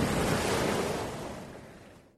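A broad, steady wash of ocean waves rushing and hissing, holding full strength for over a second before gradually fading away, with no voices present.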